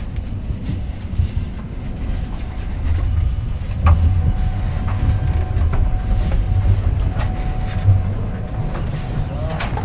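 A steady, deep rumble inside a moving train in 2012, with a constant low drone and occasional light clacks and rattles over the continuous noise.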